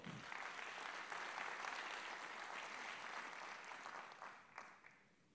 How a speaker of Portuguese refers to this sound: Amém? Aplauda ao Senhor.